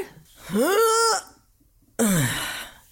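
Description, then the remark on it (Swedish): A voice makes two loud effort groans as someone gets up from a chair, the first rising in pitch and the second sliding downward, with a short quiet gap between them. “Jag reste mig från stolen och ah. lät. Det lät som att du satt på toaletten.”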